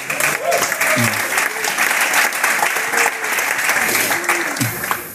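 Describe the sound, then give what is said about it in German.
An audience at the DCD event in Hamburg claps steadily for about five seconds, a dense, loud patter of many hands, mixed with scattered cheers and crowd voices calling out over it. “Das Publikum klatscht mal oder macht mal Geräusche.”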